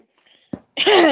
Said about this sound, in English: Sorry, I had to sneeze. Oh, I bless you. Don't apologize for the sneeze there. It was 100% warranted.